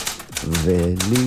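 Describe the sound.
A few quick, sharp clicks of old keyboard keys typing a question about food into ChatGPT, then a sustained voice with a steady pitch takes over and carries loudly to the end.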